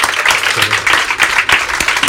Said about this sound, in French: Et je voudrais que le public de La Rochelle vous applaudisse